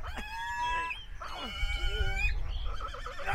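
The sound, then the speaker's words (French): A pig squeals shrilly and repeatedly, its high, wavering cries rising and falling almost without pause over a low rumbling background as it struggles while someone tries to plug an RJ-45 network connector into its back. “regarde consterné l'elfe essayer de planter un RJ-45 dans le dos d'un cochon qui se débat.”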